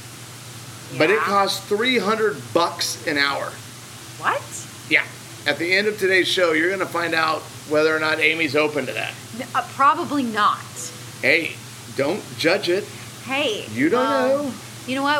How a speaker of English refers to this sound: We are actually in an amazing hotel right now. If you hear water in the background, or that is because a traumatic echo it is because we are here. We are at the El Dorado Maroma Beach, Playa del Carmen.